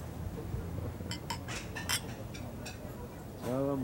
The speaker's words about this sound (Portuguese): Um brinde para o nosso próximo show.